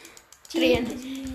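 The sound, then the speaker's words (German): Quick, light clicks tap out in a rapid series, fairly soft, as someone clicks through boxes in a video game, before a voice starts speaking over them partway through. “Hört ihr das Klicken? Ich bin voll am Durchklicken.”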